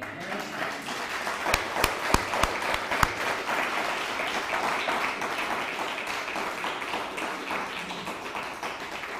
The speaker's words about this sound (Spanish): Dale un fuerte aplauso.